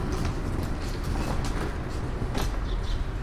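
Steady low rumble of a busy S-Bahn train station, with scattered footsteps, clatter of people's rolling suitcases and murmuring voices blending into a constant background hum.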